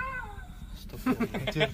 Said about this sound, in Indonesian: Ada kucing, meong.